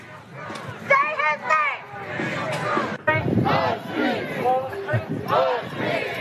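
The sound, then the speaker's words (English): A large crowd chants and shouts in unison, loud, rhythmic bursts of many voices rising and falling over a constant roar of noisy commotion. “Breaking glass and chanting.”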